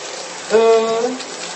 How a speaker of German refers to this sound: in guter alter Tradition kann ich äh, beim Duschen, Achtung, jetzt wird es laut gleich, vielleicht, ich hoffe mal, das hört man jetzt noch, äh, beim Duschen kurz erzählen.